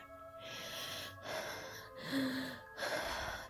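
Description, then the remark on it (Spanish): Rapid, ragged breaths in and out, about four heaving gasps in quick succession, fairly loud, with a panicked, out-of-breath quality and no speech, from someone in a corner of a locked bedroom trying to calm their breathing after running there. “Allí cerró la puerta con seguro y fue hasta un rincón intentando calmar su respiración.”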